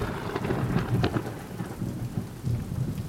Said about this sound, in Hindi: अचानक बारिश और तेज़ होने लगी और भयंकर तरीके से बिजली कड़कड़ाने लगी